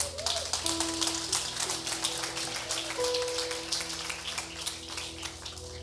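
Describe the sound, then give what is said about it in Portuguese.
An audience claps steadily for several seconds during a worship service, applauding the Lord Jesus: a dense, crackling patter of many hands, with a faint sustained keyboard-like tone held underneath and no one speaking. “Aplauda o Senhor Jesus.”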